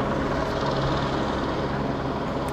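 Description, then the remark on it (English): A steady, loud mechanical drone of helicopters overhead, a broad rushing roar with a low humming rotor tone that holds constant throughout, with no voices. “We got helicopters flying around here.”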